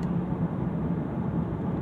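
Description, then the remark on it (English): A steady, low rumble of a car moving along a road, with continuous engine and tire noise that stays even and fairly loud throughout, with no voices. “Oh, that car almost pulled right in front of me.”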